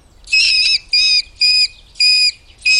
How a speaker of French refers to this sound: Ça, c'est le cri du vison. Pour que vous le visualisiez, il fait partie de la famille des belettes, des furets et des loutres. C'est un prédateur de 50 cm de long, au corps élancé, qui s'abrite dans les forêts, le long des cours d'eau,